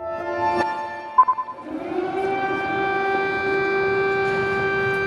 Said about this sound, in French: The first air sirens at Kiev's central Maidan Square. Le 24 février 2022, les sirènes retentissent sur la place Maïdan à Kiev. Les Russes sont passés à l'attaque.